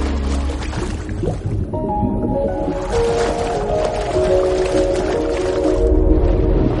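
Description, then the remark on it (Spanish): A woman in a white swim cap dives into an indoor pool, followed by a steady, muffled underwater churning and sloshing, with low sustained tones humming through the water, as she surfaces and swims across to the other side of lane 6. No one speaks. “Una mujer se tira a una piscina interior con un gorro blanco. Saca la cabeza del agua y nada hasta el otro lado del carril 6.”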